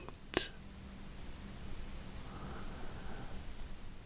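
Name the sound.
sea waves rushing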